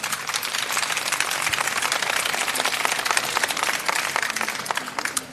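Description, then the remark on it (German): Sustained audience applause welcoming Marlene Engelhorn onto Deutschlandfunk Kultur's Das blaue Sofa: dense, crackling clapping from many hands at a steady, fairly loud level for several seconds, with no voices over it. “Bitte einen Applaus.”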